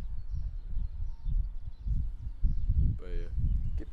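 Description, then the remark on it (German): Strong wind buffets the microphone in deep, rumbling gusts that surge and fade over several seconds, with a brief high, warbling squeak cutting through near the end. “Ja, der Wind ist heftig, ne?”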